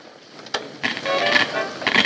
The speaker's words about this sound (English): You hear that static? My favorite tune, but I don't think it'll make the top ten.